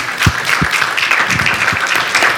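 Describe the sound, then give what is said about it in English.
A crowd applauds the dads standing up in the room, with steady, dense clapping that fills the whole stretch at a fairly loud, even level, a few heavier claps or thumps standing out underneath. “Let's give these men a round of applause.”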